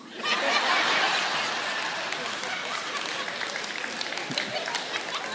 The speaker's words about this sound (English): and now you're clapping about it.